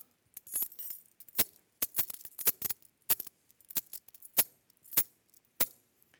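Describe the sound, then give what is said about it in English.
Keys jangle and clink in a series of sharp, bright metallic chimes, irregular at first, then spaced out into separate rattles over several seconds, with no voices. “Well, well, well, well, well but, but, I, no, he says, I got the keys.”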